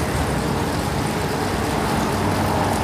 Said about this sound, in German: Das Quietschen von der Bremse. So Gas geben von den Autos, das tiefe Gas geben von den Autos.